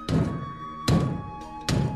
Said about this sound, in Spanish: De momento llaman a la puerta